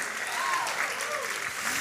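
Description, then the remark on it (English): A crowd of worshippers applauds steadily, dense clapping filling the space, with voices calling out and cheering over it in an excited, worshipful atmosphere, clapping in praise of God for what He is doing for their neighbors. “I'm clapping for what He's doing for you.”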